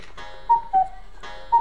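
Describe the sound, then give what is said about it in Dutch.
A clock ticks, three crisp ticks with a slight metallic ring over a steady low background hum, spaced unevenly, with no talking. “Ja, lekker die klokken, zei je.”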